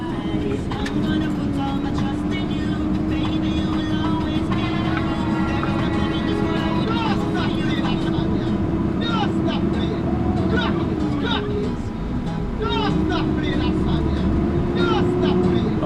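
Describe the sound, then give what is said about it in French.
Loud, steady engine drone from inside the cab of a 40-tonne cement truck, the engine pitch dipping and climbing again as it shifts gear, with rattles and muffled voices now and then. “Bah voilà, finalement on a trouvé euh, un gars qui nous a pris dans son camion. Alors c'était un camion de 40 tonnes de ciment.”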